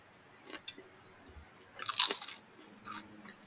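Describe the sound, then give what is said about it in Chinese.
Crunchy potato chips being bitten and chewed: a few small clicks, then a loud, sharp burst of crisp crunching around the middle and another shorter crunch after it. No one speaks. “我在吃垃圾食物，洋芋片。”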